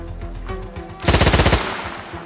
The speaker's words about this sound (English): Five shots blasted through the passenger window.